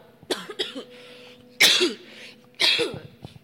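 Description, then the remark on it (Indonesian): A person whose throat has not yet fully healed coughs: two short, lighter coughs, then two harsher, louder hacking coughs about a second apart, with no talking. “batuk is back”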